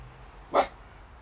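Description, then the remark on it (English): A dog stands up and gives one short, sharp bark at a baby magpie, clear against a low, steady background hum, with no voices around it. “It took him a little effort to stand up and then bark at the baby magpie.”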